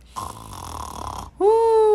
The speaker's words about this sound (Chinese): 对他这个雷鸣般的鼾声又规律的响起了。